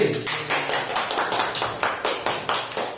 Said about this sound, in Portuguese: uma uh, salva de palmas por